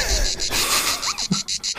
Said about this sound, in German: und dann jetzt zu Zikadengeräuschen.